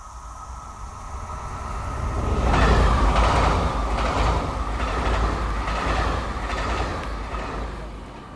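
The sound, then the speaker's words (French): A train rumbles past in a train station, its wheels clacking over the rail joints in a steady rhythm, swelling loud after a couple of seconds and then easing off slightly, with a constant hum beneath. “J'entre à la gare.”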